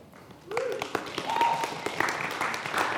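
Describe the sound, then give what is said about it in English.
A crowd breaks into applause after a quiet start, with steady overlapping claps and a few voices calling out over the clapping. “I hope we're all applauding Jesus.”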